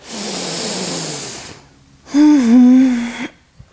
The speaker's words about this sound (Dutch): Ja, nog eens een diepe inademing.